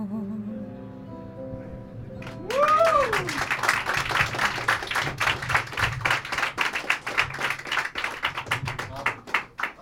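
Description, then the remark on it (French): A held sung note fades with a brief swooping glide, then an audience bursts into loud, dense applause for the two performers: many hands clapping steadily and rapidly until the end. “Ça s'applaudit encore, s'il vous plaît.”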